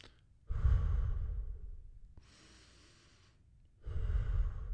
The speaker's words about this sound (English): So before you turn off the hot, just get your breathing going nice and evenly in and out.